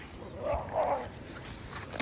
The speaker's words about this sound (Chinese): 小狗玩得很开心，很抱歉哦。